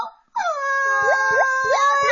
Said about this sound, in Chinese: 找不到气球，…伤心的哭了。